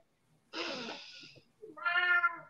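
A cat lets out two fairly loud meows in quick succession, the first harsh and drawn out, the second a higher, more tonal cry, with no talking over them.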